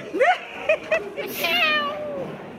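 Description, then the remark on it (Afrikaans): A cat meows several times: a quick rising mew, two short chirpy calls, then a longer, drawn-out wavering meow that trails off. “kitty! Kitty kitty!”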